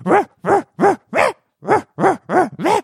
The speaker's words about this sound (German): Könntest du vielleicht in so einem kleinen, unbeachteten Moment an, dieses, an diesen Schrank der Bänder gehen und das Hundebellen wegnehmen, weil wir alle seit Jahren nur dieses